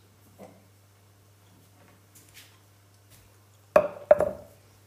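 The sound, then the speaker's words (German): A drinking glass is set down on a hard surface with two quick clinks, each leaving a short bright ring, as someone starts making a drink. “Ihr braucht ein Glas, natürlich.”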